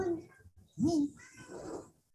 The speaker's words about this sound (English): I heard the cat. he wanted to go outside.